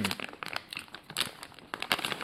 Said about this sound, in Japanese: あの、食べながらなんで、完全にあの、咀嚼音をお楽しみくださいみたいになってますけどね。